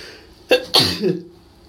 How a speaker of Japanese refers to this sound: いやめちゃくちゃくしゃみしましたわ。